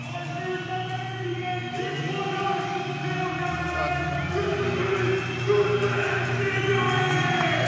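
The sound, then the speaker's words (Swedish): A large stadium crowd at a futsal match roars and chants steadily for several seconds after AFC scores against Hammarby to go 2-0, a goal by Josef Ibrahim. A dense wall of voices with sustained sung tones rises over the noise, loud throughout with a brief surge near the end. “publiken helt galen.”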